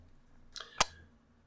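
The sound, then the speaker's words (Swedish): The lid of a small wooden dice-set box snaps shut on its magnets: a light tap followed a moment later by one sharp click, heard on its own against a faint steady hum. “Och en sån här som sitter med magneter.”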